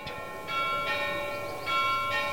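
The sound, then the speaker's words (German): The church clock at the Frauenkirche chimes at 12 noon as the Männleinlaufen starts, its bells struck about five times at an uneven pace, each tone ringing on and overlapping the next, moderately loud against faint outdoor background noise. “Jetzt ist es gerade 12 Uhr und das Männleinlaufen an der Frauenkirche startet. Man hört es auch.”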